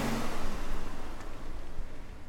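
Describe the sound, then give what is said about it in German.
A car engine rumbles steadily as the vehicle pulls away on its way to Berlin, a low, continuous drone with some road noise and no voices. “Das Auto rollt an.”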